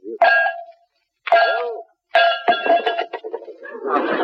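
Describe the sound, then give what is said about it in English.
Bells ring out in three separate, evenly spaced clangs, each ringing briefly, then a jumbled burst of clattering, clanging bells, as if they tumble together. Fairly loud, with no talking. “I give it four bells.”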